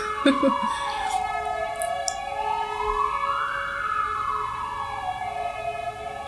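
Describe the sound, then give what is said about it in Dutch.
A wailing emergency siren sweeps slowly up and down in pitch, steady and fairly loud, as a vehicle passes by; brief indistinct voice sounds appear at the start. “Doe je de sirenes. We gaan even wachten tot ze voorbij zijn misschien.”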